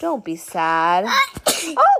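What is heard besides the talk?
sneeze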